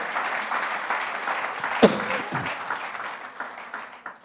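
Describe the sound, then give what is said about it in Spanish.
An audience applauds for the Lord, a steady, dense wash of many hands clapping at a fairly even level, with a sharp louder clap standing out partway through before the applause thins slightly toward the end. “Cuando da un aplauso al Señor.”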